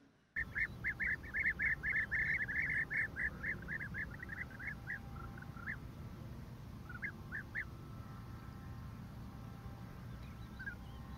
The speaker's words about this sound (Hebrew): ציפור שנקראת שרקרק, שהיא ציפור יפהפייה. ואולי תשמיע לנו גם את הקולות שלה. למה קוראים לה שרקרק? אתם תגלו מיד.